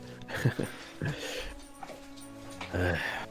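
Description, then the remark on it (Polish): A dog whimpers and lets out a few short barks in brief bursts, waiting to be let in, with some voices in the background. “Ja słyszę, tylko psa wpuszczę.”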